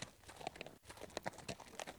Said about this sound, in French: En cours de route, il entend derrière lui des chevaux qui tirent un char. Quand il le dépasse, Philippe regarde.